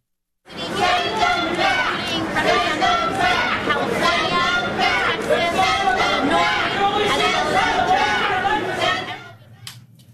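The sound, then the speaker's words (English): A loud, dense crowd of demonstrators shouts and clamors continuously for about nine seconds, interrupting a press conference led by Democrats including AOC, overlapping into a chaotic roar before cutting off abruptly and leaving a faint low hum. “The demonstrators interrupted a press conference led by some pretty big name Democrats who you see there.”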